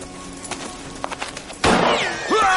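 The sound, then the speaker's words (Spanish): A handful of slow, unhurried hoof clops from a horse being led at a walk by a man, fairly quiet, then a sudden loud gunshot crack followed by a shrill, wavering whinny from the horse, frightened by the shot. “Blackthorn continúa su camino tirando de su caballo”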